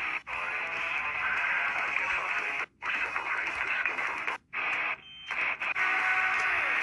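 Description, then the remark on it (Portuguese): Heavy metal music plays quietly with a thin, tinny, radio-like sound, cutting out briefly a few times as the track is skipped through to find a particular part of the song. No one speaks over it. “Vocês vão escutar um pouco de música, mas.”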